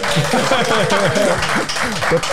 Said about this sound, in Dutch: Drie keer acht, negen mensen in het publiek. En nou, dank jullie wel, jongens. Top. Was, uh, was, eh, jullie mogen applaudisseren.